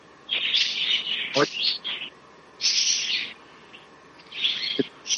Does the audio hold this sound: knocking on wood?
no